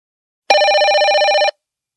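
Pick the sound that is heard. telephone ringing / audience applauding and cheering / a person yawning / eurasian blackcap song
telephone ringing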